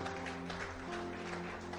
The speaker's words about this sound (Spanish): Denle fuertes palmas al Rey. Aleluya.